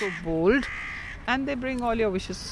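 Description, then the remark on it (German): A human voice imitates a crow's cawing with two drawn-out, nasal calls, the first rising then held, the second longer and wavering. It is fairly loud. “Krähen waren schon immer meine Lieblingsvögel. Sie klingen so anders, so frech.”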